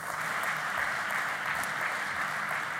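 Sustained audience applause, a dense steady wash of many hands clapping at an even loudness for the whole stretch, with no voices standing out.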